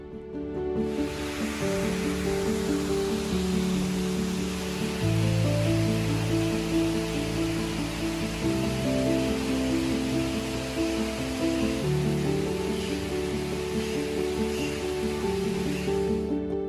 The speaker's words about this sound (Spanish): Aquí se escucha el caudal del agua.